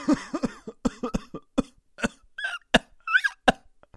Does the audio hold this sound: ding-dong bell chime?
no